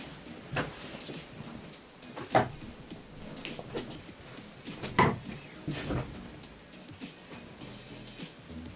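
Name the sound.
door being opened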